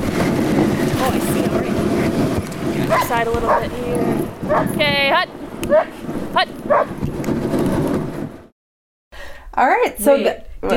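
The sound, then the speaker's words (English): A team of sled dogs barks, yips and whines excitedly together, loud, with high harmonic whimpers rising over a constant rumble of commotion before a brief silence and more yelping. “am by puppies, good dogs.”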